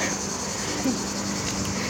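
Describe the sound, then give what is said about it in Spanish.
A steady, high-pitched insect drone, like summer cicadas, hums continuously at moderate volume with no pauses. No one speaks, and the buzzing sits over a faint low background. “No sé si se oyen como las cigarras en el.”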